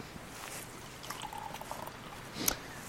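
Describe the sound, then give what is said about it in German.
Wine trickles and splashes into a glass from an already opened bottle, a soft continuous pour lasting a couple of seconds with a brief clink near the end, no talking. “Ähm, wir, wir gießen mal ein.”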